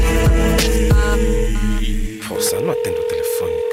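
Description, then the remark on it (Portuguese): Telephone sounds: electronic tones as a number is dialed over a low hum, then a steady ringing tone that holds through the end, moderately loud, as a caller rings again after waiting. “Esperei, esperei, nada e tornei a ligar”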